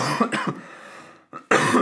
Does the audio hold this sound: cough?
yes